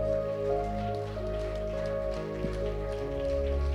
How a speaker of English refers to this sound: And if you believe that this morning, won't you give the Lord a hand clap and pray?